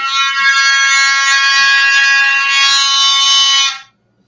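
A clay horn fitted with a gourd and balloon blares a single steady, buzzy note for nearly four seconds, loud, then cuts off abruptly into silence.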